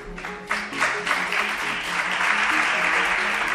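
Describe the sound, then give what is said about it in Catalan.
An ovation in the chamber of the Parliament of Catalonia on a Thursday afternoon, given by part of the chamber to deputy Irene Rigau: sustained, dense applause from many hands, steady and fairly loud throughout, with a faint murmur of voices beneath the clapping. “Amb aquesta ovació, una part de l'hemicicle rebia aquest dijous a la tarda la diputada Irene Rigau, que va aprofitar un recés del judici del 9-N per incorporar-se a les votacions de les mocions del ple.”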